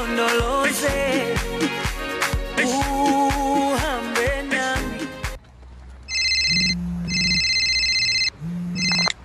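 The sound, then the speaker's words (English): Upbeat music with a steady beat stops abruptly on Namibian radio station Informante Radio. Then a phone ringtone of an incoming call sounds: bright, loud electronic tones in two long bursts with short pauses, with a third ring just starting. “this is 50 year old you calling from the future with a dumb phone.”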